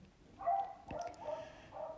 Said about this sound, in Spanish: mi perrita de fondo ladrando, porque es Laura en que le encanta estar ladrando